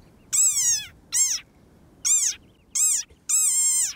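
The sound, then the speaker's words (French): A tiny frog from Namaqualand, under 5 cm long, gives its war cry: five loud, high squeaky cries in quick, uneven succession, each a short rising-and-falling squeal like a plastic squeeze toy, with no talking. “un cri terrifiant qui effectivement ressemble à celui d'un jouet en plastique.”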